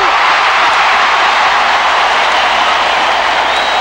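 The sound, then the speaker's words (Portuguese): A large crowd applauds and boos together in a dense, continuous roar, loud, holding steady for the whole few seconds with no clear individual voices, at the final of the MBB Shell 82 music festival at the Maracanãzinho in Rio. “Uma grande festa com muito aplauso e, é lógico, muita vaia.”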